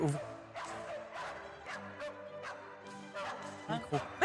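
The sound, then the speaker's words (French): Dogs bark at a concert in Denmark in repeated sharp bursts over sustained, steady musical tones, the yelps landing every half second or so at a moderate level. “Alors, sont des chiens qui jouent de leur instrument vocal, en l'occurrence les aboiements.”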